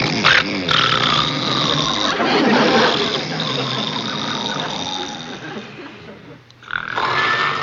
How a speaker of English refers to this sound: Andy and Barney are sitting in chairs trying to sleep while the Darling family snores. Barney raises his head up, looks at the boys as the horrible snoring continues.